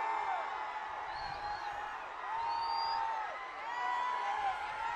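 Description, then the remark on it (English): A crowd at a parade cheers as Patrick Mahomes passes near the end of the parade route, with players trying to pump up the crowd, in a steady, dense roar with rising whoops and a few whistle-like cries cutting through the wash of voices. “And they right in front of us trying to pump up the crowd.”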